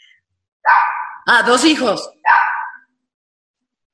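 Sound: dogs barking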